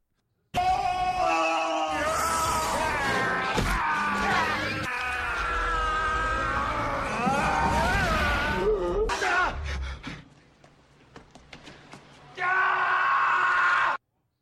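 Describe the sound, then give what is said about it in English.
A loud, drawn-out action-movie 'Arnold scream' wails and wavers for nearly ten seconds, trails off into ragged breaths, then erupts again in a short final burst, unaccompanied. “giving it the Arnold scream.”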